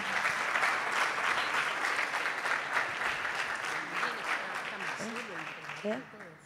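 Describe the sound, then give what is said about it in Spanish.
A church audience applauds the Lord steadily for several seconds, a dense, sustained clatter of many hands, fairly loud, with a voice starting to speak over it toward the end. “Vamos a darle un aplauso al Señor.”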